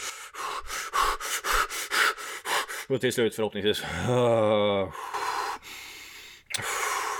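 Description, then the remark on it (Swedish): A voice demonstrates the quick, heavy panting that comes from standing in a cold shower, a rapid run of breathy huffs, then speaks briefly before drawing long, deep breaths in and out. “börja andas djupt”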